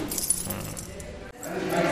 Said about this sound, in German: Das ist doch nicht der richtige Schlüssel.